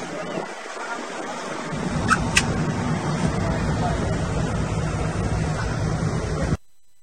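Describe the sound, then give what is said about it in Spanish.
A steady rush of Caribbean Sea surf at Mahahual washes continuously for several seconds, broad and hissing with a deeper rumble building underneath, then cuts off abruptly. “qué bueno que están trabajando este viernes 6 de octubre, aquí sufriendo, tratando de disfrutar el mar Caribe.”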